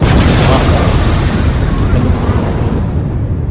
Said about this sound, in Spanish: Sonido de explosión.